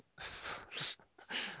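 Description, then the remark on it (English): A sneeze: a breathy hiss rising into a sharp, noisy burst, followed by another rough exhale, all fairly quiet and with no talking. “Bless you”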